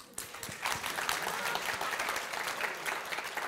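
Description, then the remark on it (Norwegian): An audience applauds steadily, a dense wash of many hands clapping at an even, fairly loud level throughout, with no one speaking over it. “Og så eh, foreslår jeg at for at vi skal komme gjennom en del spørsmål, at vi ikke klapper på hvert svar.”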